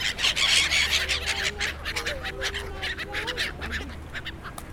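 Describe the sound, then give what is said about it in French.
Seagulls squabble noisily over pieces of bread on the edge of the Flagey ponds in Brussels on a chilly day, a dense tangle of overlapping harsh calls and squawks running throughout over a steady outdoor rumble. “Ça, c'est le bruit des mouettes qui se disputent des morceaux de pain sur les bords des étangs de Flagey.”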